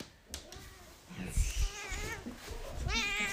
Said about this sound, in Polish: Cześć, cześć, kocie. O, miau, dobrze, dobrze, sorry.